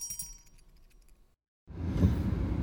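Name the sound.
getting into a car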